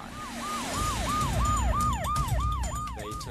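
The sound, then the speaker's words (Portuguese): A loud ambulance siren yelps in quick, repeating rising-and-falling sweeps, about three per second, over a low rumble of road traffic, as an ambulance takes a man to hospital. No one speaks. “Eles o levaram de ambulância para o hospital.”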